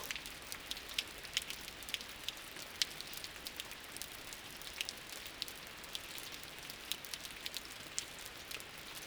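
Steady rain falls at nightfall, heard from a sheltered recess in a cliff as a trickle of water drops onto the road; a dense hiss of patter with scattered sharper drop ticks, fairly quiet and even, with no voices.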